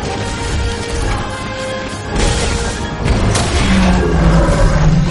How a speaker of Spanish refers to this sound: Las explosiones sucesivas hacen que Kate esté a punto de perder el control del aparato. Kane pierde definitivamente el control de la nave y cae en picado golpeando una enorme estructura y rebotando contra otras edificaciones.